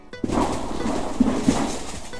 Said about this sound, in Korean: 삐걱거리기도 하고 갈라지기도 하며 으르렁대며 소리를 만듭니다. 얼음 덮인 강이나 호수는 하나의 거대한 북과 같습니다. 온도가 오르고 내림에 따라 얼음은 수축하거나 팽창하고 이에 따라 얼음층이 깨지거나 변형되면서 소리를 만듭니다.